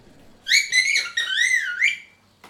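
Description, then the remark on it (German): An artificial bird whistle is blown in a quick warbling run, bright chirping trills sliding up and down over about two seconds, fairly loud, with no voices. “Stattdessen reisen sie bis nach Istanbul, um dort auf dem Markt künstliche Vogelpfeifen zu kaufen.”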